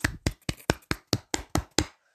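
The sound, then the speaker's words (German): A single person claps their hands about nine times in a quick, steady rhythm, as applause for the actress who played Umbridge. Each clap is sharp and crisp, and no one speaks. “Keine Ahnung, wie sie heißt, trotzdem Applaus.”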